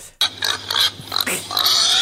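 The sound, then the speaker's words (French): A pig oinks and squeals in a quick run of grunts, the noisy calls coming back to back and growing shriller toward the end. “pourquoi cochon?”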